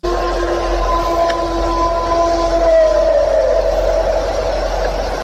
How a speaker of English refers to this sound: What the absolute heck is it? That one's more like a, a howling, but it kind of lacks oh, yeah. some something that um, uh, that that wolves have, you know.